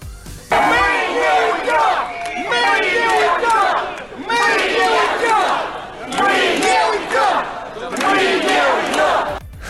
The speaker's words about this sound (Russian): В смысле, они уйдут, но они вернутся. Так, по крайней мере, кричат митингующие.